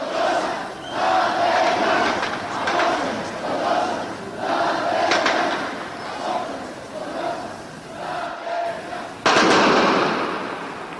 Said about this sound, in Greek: όλο το βράδυ ακούγαμε τα αστυνομικά αυτοκίνητα, τους πυροβολισμούς, όλη αυτή την ιστορία, τη βαβούρα απ' έξω την πολεμική.